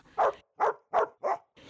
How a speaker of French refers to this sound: il aboyait aussitôt pour prévenir M. Baratin que quelqu'un arrivait